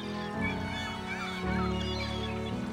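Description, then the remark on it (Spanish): Geese honk loudly and continuously in a dense, overlapping chorus of nasal calls, with the pitch shifting in a few distinct steps and no voices. “También cuidarían de las ocas que en la Edad Media alcanzarían un gran valor, incluso por encima del ganado ovino”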